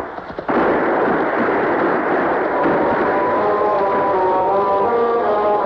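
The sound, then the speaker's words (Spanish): Gunshot detonations from various parts of a dark forest: a sudden sharp blast breaks out after a brief quiet, followed by a loud, continuous roar of detonations that rumbles on without pause, with a faint ringing tone emerging toward the end. “perseguidos por las detonaciones que surgen de diversas partes del oscuro bosque”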